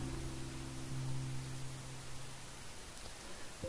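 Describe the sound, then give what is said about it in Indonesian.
Soft, steady wind blows outdoors in a park, a continuous airy hiss with a faint low hum beneath it. No one speaks, and the wind holds level throughout without distinct gusts. “Hening, hanya suara angin berhembus yang kita dengar di taman.”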